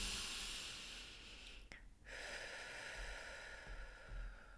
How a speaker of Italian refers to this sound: un'inspirazione, un'espirazione, un'inspirazione e un'espirazione come una danza